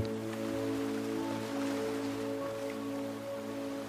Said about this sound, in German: Es gibt unterschiedliche Wellen. Manche sind sehr lang gezogen und langsam. Andere wiederum sind sehr schnell und kurz. Wir konzentrieren uns auf die Wellen, die sehr langsam auf den Sand und auf den Strand treffen.